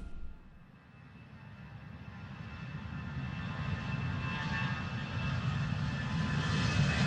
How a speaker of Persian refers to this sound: هواپیما از زمین بلند شد.